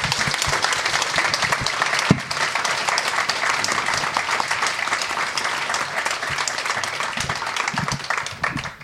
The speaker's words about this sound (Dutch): Ik vraag u warm applaus voor Erik om bij ons te zijn.